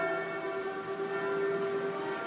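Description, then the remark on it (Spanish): Church bells of the Saint-Sulpice church in Paris ring continuously in the background, their overlapping metallic tones blending into a steady, sustained hum with no clear individual strikes. No one speaks. “Y las campanas que se oyen de fondo son las de la iglesia del Santo Suplicio, San Suplicio”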